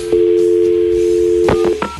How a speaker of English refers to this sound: So now the phone calling. Mm. I don't hear any dialing. dialed, but it's not ringing.